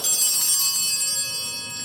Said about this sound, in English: One of the servers is going to ring these bells.